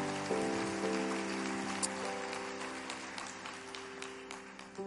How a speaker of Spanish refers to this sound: Ustedes saben, sí, denle un aplauso a, Dios. Gracias, Señor.